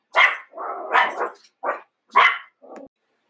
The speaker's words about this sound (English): agrees with that completely, hence the barking.